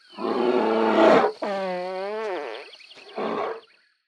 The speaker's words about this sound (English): It's like in this recording, this bear farts and like enjoys it thoroughly afterwards. There is no remorse. You know what I mean? And it's like a funny moment, a funny way of thinking about it because it's absolute pure emotion.